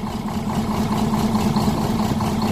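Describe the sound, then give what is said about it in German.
A bus engine idles with a steady, low droning rumble and a faint higher whine on top, holding an even, unbroken level for the whole stretch with no voices. “Das ist natürlich Geschmackssache, aber besser als das?”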